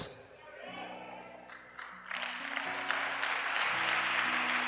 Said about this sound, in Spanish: Si le va a aplaudir a Dios, hágalo bien.